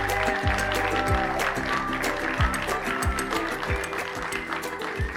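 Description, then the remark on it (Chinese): A crowd of animals at a forest party cheers and claps loudly and steadily for about five seconds, mixed with upbeat music that has sustained tones and a regular thumping bass beat. “感谢你们的支持， 动物们也大声欢呼起来了。”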